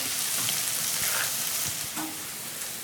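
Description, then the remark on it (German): Garlic and onions sizzle steadily in a frying pan in the Zambo kitchen, stirred so they brown on all sides, a dense crackling hiss that stays fairly even throughout, with a few faint clinks and stirring sounds mixed in. No one speaks. “Und ich sehe da ein paar Böllen, Knoblauch in der Bratpfanne am Brutzeln.”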